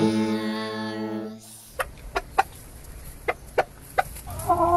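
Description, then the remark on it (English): Sebright bantam chickens cluck in a series of short, sharp, irregularly spaced bursts, following a steady sustained tone at the start and ending on a brief higher-pitched call. No one speaks. “Our chickens are called Seabright chickens, and they're bantams,”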